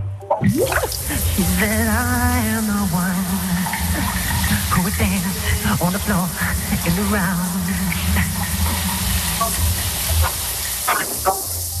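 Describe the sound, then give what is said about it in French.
A steady hiss of running shower water fills the bathroom while a man sings under the shower, his voice rising and falling in melodic phrases over the constant spray. “Et voici qu'un chanteur que vous connaissez bien chante sous sa douche.”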